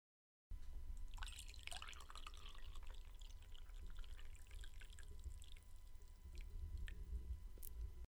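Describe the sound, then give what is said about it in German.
Hot water is poured into a cup for a tea from a tea advent calendar, a steady trickle and splash lasting several seconds, with a brief bubbly gurgle near the start, fairly quiet and with no talking. “Aber ich würde jetzt erstmal eingießen. Gieß mal ein. Gönn uns den Sound.”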